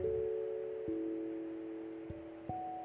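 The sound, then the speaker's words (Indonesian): Soft piano notes are played slowly, about four struck one after another, each ringing on and blending into the next. The playing is gentle and unaccompanied, with no voices. “Piano”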